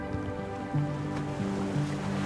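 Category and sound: nature, ocean waves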